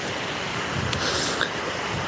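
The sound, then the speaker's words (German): A steady, rushing wash of ocean waves on the shore at sunrise on a slightly cloudy day fills the whole moment, swelling slightly in the middle, with no voices present. “Ja, du hörst das Wellenrauschen, glaube ich.”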